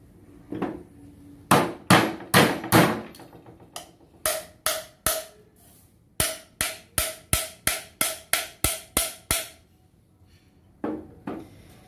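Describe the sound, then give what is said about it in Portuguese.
A plastic cap is fitted onto the base of a size-50 pipe with a run of sharp knocking taps, several quick groups of hard hits, then a brief pause and a couple of final softer knocks. “Então eu tenho esse capa aqui já furo e coloco aqui na base do cano”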